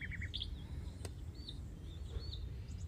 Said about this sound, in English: We hear the bird songs